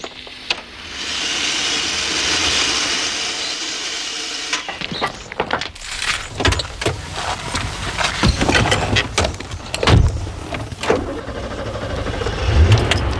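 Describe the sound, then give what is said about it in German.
A car rolls in at low speed up to a parking area after a gate is opened, its engine humming steadily, then tyres crunch over gravel with scattered knocks and clicks as it comes to a halt. No one speaks. “Fahrt euren Wagen bitte oben auf den Parkplatz.”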